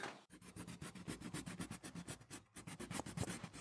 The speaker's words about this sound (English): I've been bothering him, capturing sounds, uh, like him, kind of his pencil sketching against the wall. Paint mixing sharpening a pencil, erasing,